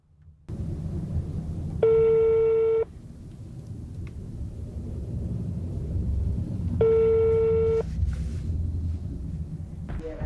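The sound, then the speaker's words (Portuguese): Two long, steady electronic ringback tones of a telephone call attempt, about five seconds apart, each lasting roughly a second, heard over a low, rumbling background hum with no talking. “a gente vai tentar um contato por telefone.”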